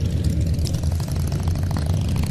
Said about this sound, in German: Eieiei, die Motorradfahrer. Ach du große Güte. Lauter Harleys, ihr hört das, ja? Könnt ihr mich noch verstehen? Heftig tuckernde Harleys kommen hier an. Aus Kassel sind die.